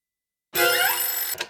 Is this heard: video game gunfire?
no